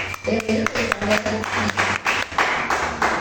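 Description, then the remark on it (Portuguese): An audience applauds the Lord after a prayer, with steady, fairly loud clapping, the bursts coming in an uneven rhythm over a low hum of voices or music underneath. “Aplauda o Senhor, pode se assentar.”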